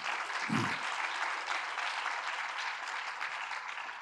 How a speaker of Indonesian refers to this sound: Yang saya mau sampaikan, haleluya, berikan tepuk tangan dulu lah.